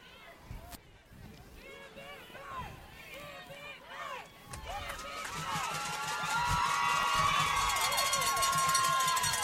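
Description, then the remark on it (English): A football stadium crowd roars at a game involving Montgomery Catholic while officials sort out penalties on the field, with many overlapping shouts and cheers rising and falling, then swelling into a louder, sustained wall of noise over the last few seconds. “and folks, we're going to let you hear the crowd right now because we don't know exactly uh, what is going on”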